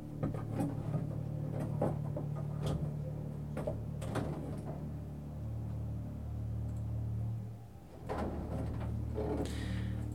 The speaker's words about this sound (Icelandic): En hvaða lætir þetta? Jú, það standa yfir framkvæmdir á efrihæðinni hjá mér.